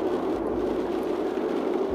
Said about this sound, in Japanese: 今福岡はちょっと雨が降っていまして、えー、運転中なんですが雨音やワイパーの音などで少々お聞き苦しい音質になっているかもしれません